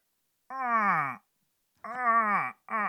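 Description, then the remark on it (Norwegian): Someone vocally imitates a moose giving birth: three drawn-out, strained moans that sag downward in pitch, the last one clipped short, with silent gaps between and no other talking. “Er det en elg som dør? Nei, elg som føder.”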